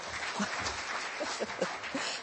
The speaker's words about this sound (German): Genau, klatscht doch einfach mal.